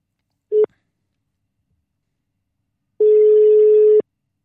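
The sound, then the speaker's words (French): A brief beep from a phone line as a telephone call is placed, then after a pause a single long, steady ringing tone lasting about a second, clear with no voices. “je vais prendre mon téléphone comme d'habitude et on va pouvoir s'entretenir avec le frère Amin”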